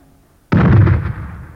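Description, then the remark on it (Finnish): After a brief hush, a torpedo strikes its target with one sudden, loud explosion, a deep blast that keeps roaring and slowly rumbles off. No voices are heard. “Teillä on aika juuri sen verran, kun torpedo tarvitsee ehtiäkseen maaliin.”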